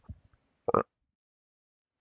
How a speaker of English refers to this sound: Do you hear that cake burp? Cake burp? Is that what you said? Cake burp. I just had a cake burp. What kind of cake? It was a red velvet cake.